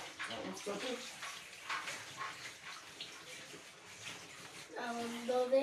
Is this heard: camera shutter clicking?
no